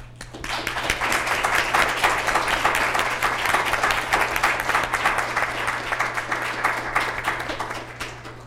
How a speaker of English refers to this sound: Obviously, I also would like to thank our four panelists for this insightful discussion, and please join me in a row of applause uh, to thank them.